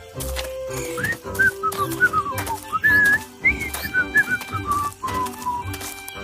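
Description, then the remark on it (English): Someone whistles a cheerful, wandering tune, the notes sliding up and down in short phrases over a low, steady rumble and soft clattering in the background. “Being cheerful and singing away will make our journey shorter.”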